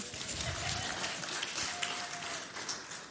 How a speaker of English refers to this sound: Bring them back. All right. Yeah, you guys can clap for them. Kids like that.